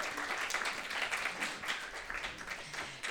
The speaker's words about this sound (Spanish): Em, estamos muy, muy, muy, muy contentes eh, desde la comisión de poder proyectar hoy Crónicas de un Exilio, eh, que es una película en la cual gran parte del equipo de postproducción eh, son socios de EDA. Así que de vuelta, un aplauso.